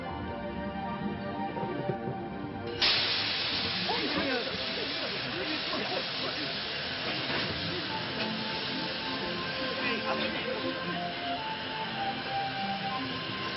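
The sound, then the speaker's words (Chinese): A steam engine outside a window hisses steadily, a broad rushing noise that swells suddenly louder about three seconds in and then holds on without a break, with faint muffled voices underneath. “你那台蒸汽机在窗外捂手捂嘴的，我眼都给弄花了，想说的话都不敢说了。”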